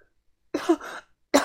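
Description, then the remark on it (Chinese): Harsh, rough coughing with no talking: a first cough trails into a rasping, throaty tail, then after a short pause a second sharp cough begins. “听到咳嗽声啊，我和于哥几乎是同时冲了过去。”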